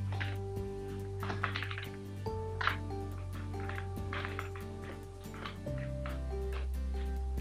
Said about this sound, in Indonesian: Yang penting kita dengerin saja keyboard yang sedang diassember kan